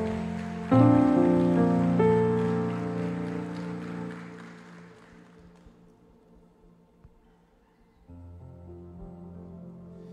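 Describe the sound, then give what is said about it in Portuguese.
A crowd applauds for Jesus in a steady wash that begins suddenly and gradually fades over several seconds, with sustained keyboard chords ringing underneath, then the chords return softly. “Dê um aplauso, dê um aplauso Jesus.”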